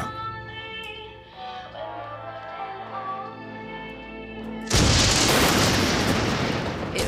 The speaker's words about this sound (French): On aurait dit qu'il y avait des éclairs tout autour de la maison.